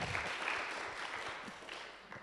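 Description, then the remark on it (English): An audience applauds a man in the audience on his birthday, a dense wash of many hands clapping at a fairly even level for a couple of seconds with no talking over it. “could everyone please give him a round of applause?”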